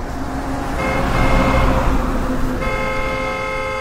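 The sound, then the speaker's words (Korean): An approaching car's horn blares at a pedestrian in a long, sustained, loud honk over rumbling engine and road noise, its pitch shifting partway through and holding until the end. “차가 오는 그 순간 빵빵거리면서 나는 움직일 수가 없는 그 순간 분명히 들었어.”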